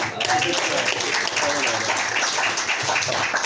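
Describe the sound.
A crowd at a Hare Krishna temple applauds the kirtan steadily, a dense wash of many hands clapping at an even loudness for several seconds, with a faint murmur of voices mixed underneath.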